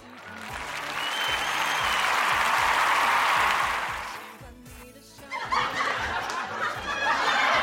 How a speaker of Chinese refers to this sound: 教室瞬间石化，紧接着是热烈的掌声。